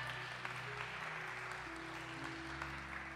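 A church audience claps steadily throughout to welcome first-time visitors, a dense, even wash of hand claps with no pauses, while low sustained musical tones hum softly underneath.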